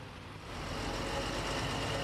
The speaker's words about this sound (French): La navette s'approche et pour vous représenter le véhicule, il s'agit tout simplement d'un autocar de transport.